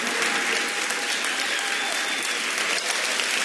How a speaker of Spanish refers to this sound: Alguien tiene que adorarlo en esta tarde con un aplauso que le duelan las manos, porque el que está aquí es digno y merecedor de alabanza.